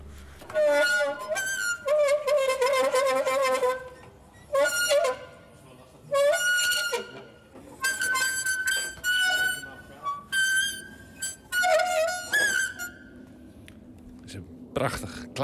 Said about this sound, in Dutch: Het is inderdaad nog een uh, gietijzeren oude naaimachine. Ja, je, hebt, je, je, kunt beneden kun je trappen en dan breng je beneden een vliegwiel in werking.